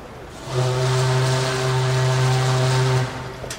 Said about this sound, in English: With the last passengers finally aboard and the gangway pushed back onto the pier, the ship was now ready to set sail. One final blast on the whistle bleep, and then we'll cast off.